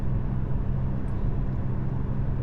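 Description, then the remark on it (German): A steady, low rumbling drone fills the space, like road and engine noise heard from inside a moving car. It holds an even loudness throughout, with no voices. “Das war meine erste Podcast-Folge im Auto.”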